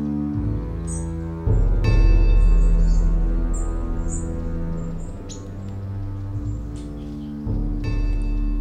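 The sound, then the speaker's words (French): Many small birds chirp and tweet in a scattered, overlapping flurry, a formation of migrating birds passing as they fly south, calling over a steady low droning hum that swells partway through. “Pophéus regardait passer une formation d'oiseaux migrateurs qui voulaient vers le sud en piaillant.”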